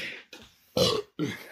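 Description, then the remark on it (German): A quick run of sneezes, about four sharp, breathy bursts in close succession, the third loudest, with short pauses between them. “Meine oh, Güte. Gesundheit.”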